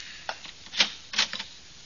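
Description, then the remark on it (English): A door in a hall clicks shut and locks, with a few short, sharp latch clicks and rattles over about a second, fairly quiet, with no talking. “oh The door done closed. Mm, it's locked.”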